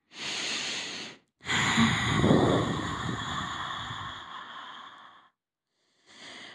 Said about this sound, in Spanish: Empieza a respirar desde el diafragma. Toma otra respiración profunda desde el diafragma.